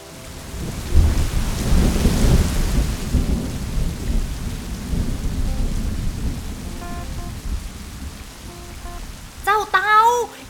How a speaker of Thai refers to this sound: อีกแล้วอีกแล้วอีกแล้ว ฝนมันตกหนัก จนไม่เหลือสักที่ให้ฉันอยู่แล้วนะ